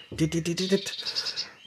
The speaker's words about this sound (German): Das ist die Blaumeise jetzt. Genau, ja? das ist der Ruf der Blaumeise.